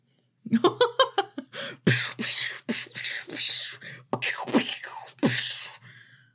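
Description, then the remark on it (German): A voice imitates a drum kit, with quick percussive mouth sounds and hissing cymbal-like bursts in a steady beat, fairly loud, no words spoken. “Also so hören sich, hört sich ein Schlagzeug an.”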